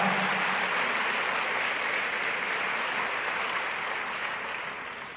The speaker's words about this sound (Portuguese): Uau, vale a pena aplaudir a Jesus mesmo. Uau!